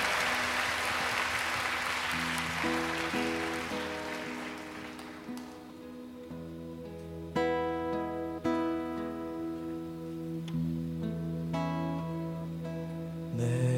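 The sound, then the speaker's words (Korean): A church audience claps steadily for several seconds in thanks and glory to God, the applause thinning out as sustained organ-like keyboard chords rise and carry on alone at a steady level. “할렐루야 주님께 다시 한번 감사와 영광의 큰 박수 올려드립시다 아멘 아멘”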